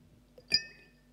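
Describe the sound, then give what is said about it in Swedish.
A single bright glass clink rings out as a small glass drops into a larger one, its high tones lingering briefly before fading. “Ungefär som så här, att det här lilla glaset åker ner i det stora.”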